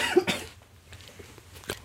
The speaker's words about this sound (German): alles nicht so schlimm. Wir sind in einer Live-Sendung, also insofern ist das auch mit dem Husten in Ordnung.